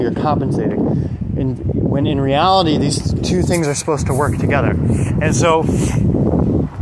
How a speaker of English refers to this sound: Um, apologize for the wind. I'm trying to block it as best I can